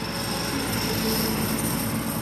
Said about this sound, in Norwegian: Er du redd traktor?